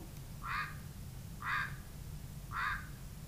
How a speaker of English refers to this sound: Chihuahuan raven.